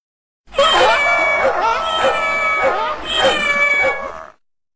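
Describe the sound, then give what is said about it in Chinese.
A donkey, dog, cat and rooster, stacked on one another at a house window (the donkey's front legs on the windowsill, the dog on its back, the cat on the dog, the rooster on the cat's head), cry out together to frighten robbers. A loud, clamorous chorus of shrill yowling cries wavers and overlaps for about four seconds, then cuts off. “强盗们听见这可怕的叫声，以为是鬼进来了，惊恐万分的逃走了。”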